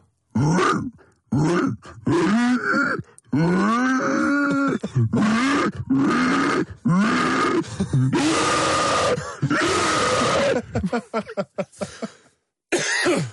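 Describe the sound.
A person, with a finger pushed into a loose cheek and sucking air in, imitates an animal with a run of loud, rough inhaled grunts, repeated in rhythmic bursts, some drawn-out and snorting, with brief pauses between.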